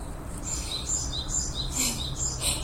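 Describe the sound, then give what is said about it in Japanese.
In the morning, repeated high, bright bird chirps ring out in a steady pattern over low background rumble, a single unidentified bird calling with no one speaking. “今鳴いてる鳥がこの間から気になってるんですけど何の鳥かわかる人がいたら教えてくださいなんだろうこれ”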